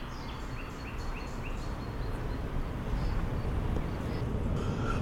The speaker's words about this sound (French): Et là, de temps en temps, hop, pas une voiture, et on entend les oiseaux.